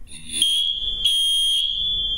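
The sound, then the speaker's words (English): A smoke alarm in a house, going off while fried chicken is being cooked, shrieks with a loud, piercing high-pitched tone, sounding continuously with pulsing bursts of extra harshness, with no one talking. “Whoa, we're getting some alarms girl- going. on.”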